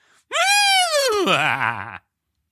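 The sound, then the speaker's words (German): A voice imitates a laughing horse: one loud whinny that starts high and strained, then drops into a shaky, quavering tremble before cutting off. “Mach mal ein lachendes Pferd.”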